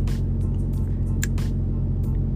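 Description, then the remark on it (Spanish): A refrigerated trailer's reefer unit, just switched on, runs with a steady, loud diesel drone and a low humming rumble, with brief hissy bursts of air over the constant engine noise. Nobody speaks. “So, prendió el rifle ahí, eso es lo que se escucha ahí, el rifle prendido.”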